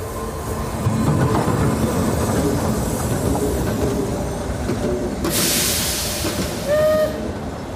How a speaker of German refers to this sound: Der Zug wartet schon.